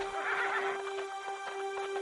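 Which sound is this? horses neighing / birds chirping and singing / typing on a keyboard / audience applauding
horses neighing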